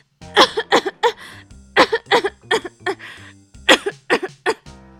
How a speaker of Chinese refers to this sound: 医生，我的喉咙好痛哦，这几天一直在咳嗽，咳个不停哎。